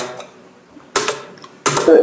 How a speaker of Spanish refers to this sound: ¿Qué te, está tecleando? ¿Qué está tecleando? Estaba buscando un chiste.